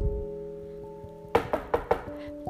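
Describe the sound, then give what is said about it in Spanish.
Four quick, evenly spaced knocks on a door ring out clearly over a soft, sustained musical background, with no voices present; Grandpa Giraffe (Abuelo Jirafa) knocking, arriving with a special gift. “Llaman a la puerta.”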